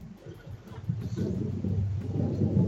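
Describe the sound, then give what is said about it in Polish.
A low, rolling rumble of thunder from a storm outside builds steadily over a few seconds, deep and muffled, with no voices over it. “O, słyszę burzę? Oj, chyba tak, zamknę, zamknę okno w takim razie.”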